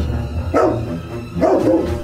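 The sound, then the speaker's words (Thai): A dog barks twice, loud, with a short pause between the two sharp woofs, over a steady low background hum. “เจ้าสุนัขรีเปิดปากเพื่อตะโกนทันที”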